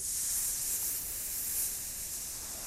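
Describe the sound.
A person breathes out a long, steady hiss imitating a snake as a 'water breath' breathing exercise, sustained for nearly three seconds without a break, soft with no talking.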